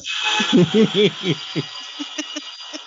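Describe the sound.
A pop song plays from Spotify through a small speaker, with melodic singing over a bright, dense backing and a steady rhythmic pulse, fairly loud and heard on its own.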